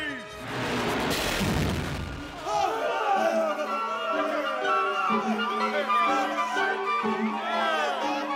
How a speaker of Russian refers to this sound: Это вовсе не мухи! Это... Это орудийные выстрелы! И летят в вас пушечные ядра!